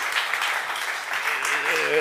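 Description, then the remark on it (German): Steady, dense applause from a crowd giving itself a big round of applause, loud and continuous throughout, with a voice briefly rising over the clapping toward the end. “Und ich möchte, dass ihr jetzt euch einmal dafür einen riesengroßen, fetten Applaus mal selber gibt, dass ihr einfach so krass abreißt die ganze Zeit, ja.”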